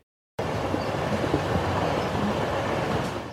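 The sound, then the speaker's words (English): A train rumbles steadily along railroad tracks, a dense, continuous roar with low mechanical clatter starting abruptly after a brief silence and holding loud throughout. “It's actually the sound of a train.”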